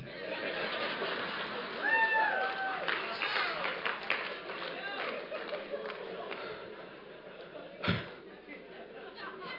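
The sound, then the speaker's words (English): An audience breaks into steady applause for a young man wearing a bow tie, a dense patter of many hands clapping with some crowd noise, a brief whistle or cheer early on and a sharp louder burst near the end. “Give him a big hand clap right there.”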